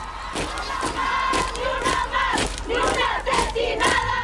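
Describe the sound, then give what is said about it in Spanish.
A group of about 20 women, radical feminists, shouting angrily together as they enter a building, loud, overlapping cries rising and falling in repeated bursts, filling the whole clip with no calm gaps. “Sus gritos rabiosos salían desde los pulmones.”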